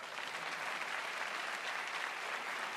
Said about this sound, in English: You know what actually helped me uh, come back is if I could have one of those rounds of applause that you hear. When you, thank you.